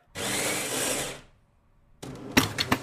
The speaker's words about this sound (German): Und ich fange an zu stoppen, um das vielleicht noch zu sagen, in dem Moment, wo die Pumpe anläuft?